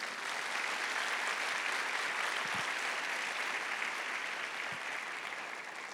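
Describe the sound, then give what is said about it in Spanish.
A crowd applauds for Jesus during a sermon, steadily for several seconds, a dense, even wash of many hands clapping at once with no talking over it. “¿Será que puedes dar un aplauso a Jesús por eso?”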